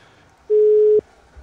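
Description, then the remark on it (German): A single steady electronic telephone tone sounds for about half a second, loud and clear against a quiet background, then cuts off abruptly, as a call is being redialed. “wir beenden jetzt diesen Call und ich rufe einfach nochmal bei René und Tim an”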